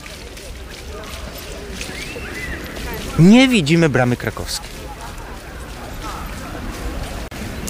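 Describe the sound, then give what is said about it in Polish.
Working city fountains on Plac Litewski splash steadily in the background, a continuous even wash of falling water recorded on a Friday, while a person speaks briefly over it partway through. “Tak jak Państwo słyszą w tle, jeszcze fontanny działające, bo to przecież nagranie z piątku.”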